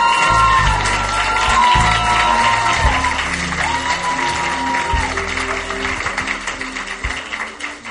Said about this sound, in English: Please clap for them.